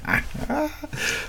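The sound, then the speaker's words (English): A sneeze with a snorting, nasal quality, breaking into a few short loud bursts over about a second, with no talking. “Bless you and your little elections.”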